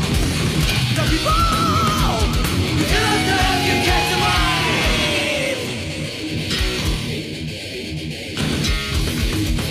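A loud, dense heavy metal track with driving drums and distorted guitars, a shouted, yelling vocal line riding on top; the mix thins briefly near the end before surging back.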